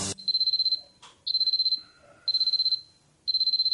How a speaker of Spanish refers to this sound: Suena un despertador y una mano sale de entre las sábanas para apagarlo.